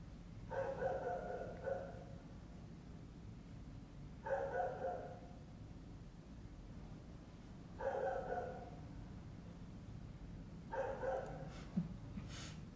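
A dog barks in four short clusters spaced a few seconds apart, sounding faint over a steady low background rumble, with no talking.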